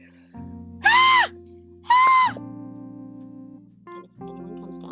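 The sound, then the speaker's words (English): A voice imitates a woman's scream in two shrill, wavering bursts about a second apart, loud, over a low hum of background sound, mimicking how she screamed at a man while asking for something. “Okay, so she was screaming like that, and and he was very calmly just back to her like, uh, I can't have you screaming at me like that.”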